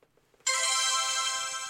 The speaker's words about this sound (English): If someone gets a correct answer, they will hear the chime sound.